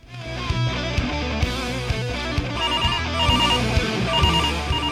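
A telephone rings with a steady, melodic ringtone that plays on without pause for about five seconds, layered tones over a pulsing beat, fairly loud and with no one speaking.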